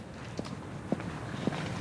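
Footsteps of two people walking at a steady pace toward the Experience Center at New Motion's headquarters in Amsterdam, four distinct heel strikes spaced evenly, moderately loud over a low background hum, with no talking.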